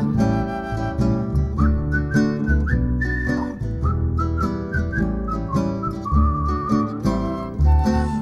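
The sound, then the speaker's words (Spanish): A person whistles a bright, wandering tune in clear sustained notes, riding over a full, steady musical backing with bass and rhythm throughout. “puedo hablar, cantar y silbar.”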